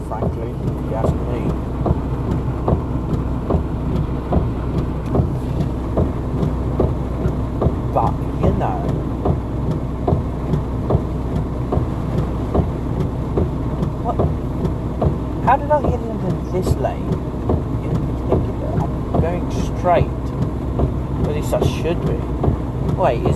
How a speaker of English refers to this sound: In case you can't tell, I drive during these.